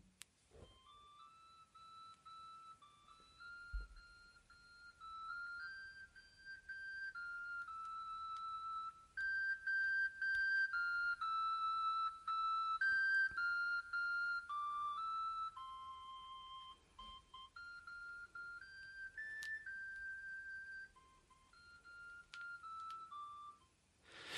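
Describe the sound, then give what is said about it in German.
A scrap collector truck's loudspeaker plays a repeating electronic jingle melody as the truck approaches and drives past the house, growing somewhat louder, then easing off slightly; no one speaks over it. “Aber auf jeden Fall, der kommt dann irgendwann näher und das hört sich dann so an.”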